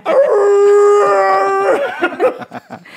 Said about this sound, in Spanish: de fondo, eh, lobo estaba aullando.